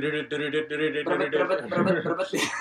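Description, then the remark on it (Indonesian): A voice imitates a beat with the mouth, producing a steady run of short, rhythmic voiced syllables, ending with a sharper, breathy burst. “Terus ada juga beat yang bukan tik tak tik tik tak tik juga. Itu tuh kalau pakai mulut bunyi”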